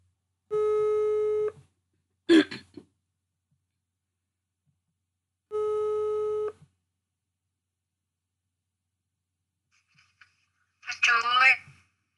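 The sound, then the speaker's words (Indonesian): An outgoing phone call to the caller's older sister rings: two steady electronic ringback tones about a second long, repeated with long gaps, then a woman's voice answers briefly. A short voice burst also cuts in between the rings. “gue pengen tahu dengan cara langsung telepon mereka ini bener-bener random sih gue nggak tahu mau telepon siapa tapi mungkin mulai dari cici gue dulu deh nah, coba telepon bentar”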